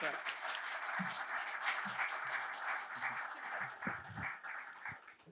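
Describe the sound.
A crowd applauds steadily, a dense wash of many hands clapping at once that holds at an even level for several seconds, with a few low murmurs of voices underneath. The applause is for a speaker about to give a lecture at Café Weltsmerts.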